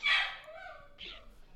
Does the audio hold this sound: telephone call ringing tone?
no